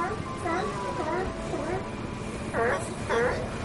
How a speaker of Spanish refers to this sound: Gritos, rugidos, maullidos, no sé cómo llamarlo, eso escucho, y saltan hacia el mar. Lobos marinos adultos marcan territorio y los jóvenes invitan a jugar al agua.